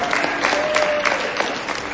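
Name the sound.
audience applause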